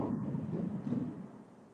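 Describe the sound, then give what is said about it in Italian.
A low, rolling rumble of thunder, steady for a couple of seconds and then fading slightly, with no voices over it. “Ad Adossa iniziano a, a, ad arrivare dei tuoni inquietanti.”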